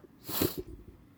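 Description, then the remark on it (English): A single sharp, congested nasal sniff from a person with a head cold, a quick breathy rush of air through the nose that fades into soft, faint breathing. “I didn't think I was had a head cold, but I'm sniffing like a whore.”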